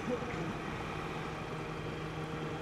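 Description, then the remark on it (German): Steady street traffic rumbles on all sides on a Saturday morning, heard from a traffic island between the lanes at Admiralbrücke in Berlin-Kreuzberg. It is a continuous, fairly loud wash of engine noise with a low idling hum and no clear breaks. “Samstagmorgen, Admiralbrücke Berlin-Kreuzberg, auf der Verkehrsinsel zwischen den Fahrspuren.”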